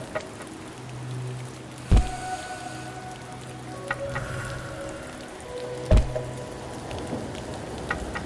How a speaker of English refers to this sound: There's the thunder.